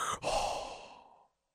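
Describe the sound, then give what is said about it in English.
A person makes a loud, breathy hiss, imitating a film character's mechanical respirator: a short intake, a brief catch, then a long forced exhale that fades out after about a second. “It's like that thing's fucking breathing for him.”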